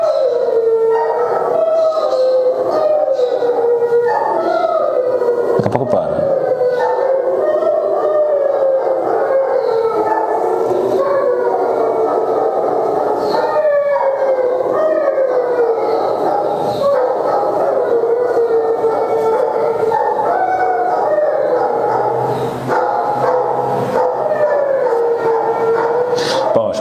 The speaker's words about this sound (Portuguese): Começou a festa dos cachorros do bairro aqui, ó.